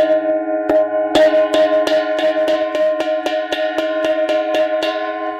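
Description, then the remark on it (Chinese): A small gong, locally called a malou and used as a Dongba ritual instrument, is struck about a dozen times in a steady, fairly quick beat. Each hit is a bright metallic clang whose ringing tone carries over into the next, with no talking. “马楼是锣。”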